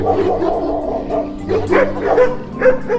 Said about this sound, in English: As I got closer to a house on the left that I could barely see in the nighttime shadows, a veritable army of about 10 dogs rushed out of the driveway to the house.